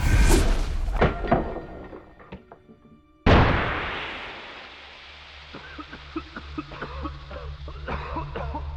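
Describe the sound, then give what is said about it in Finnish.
A few dull thuds, then a sudden sharp pop of a smoke grenade, thrown through a window into a villa, followed by a steady, loud hiss that slowly fades over several seconds as yellow smoke pours out of the windows. “Sisältä kuului poksahdus ja suhinaa.”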